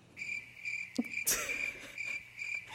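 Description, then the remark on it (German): Steady, repeated cricket chirps pulse in regular bursts, fairly clear, with a brief scuffing noise in the middle. No one speaks. “nutzt du das so richtig ja, aus und drückst ihm endlich. die Grillenzirper rein, ne?”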